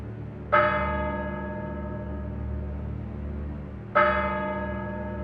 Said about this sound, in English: As the clock strikes 13, it's Wednesday, the 1st of March, year of our Lord 2023 day 1084 of the emergency.